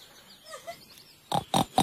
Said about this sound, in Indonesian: kenal suara itu. Emang kayak babi.